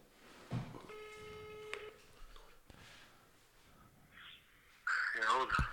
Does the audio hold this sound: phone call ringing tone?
yes